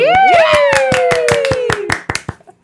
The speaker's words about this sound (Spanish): Perfecto, aplausos